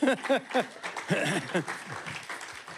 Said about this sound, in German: ja genau, komm, gib mal Applaus